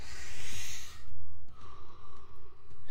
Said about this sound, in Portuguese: Inspira e expira. Inspira profundo, expira.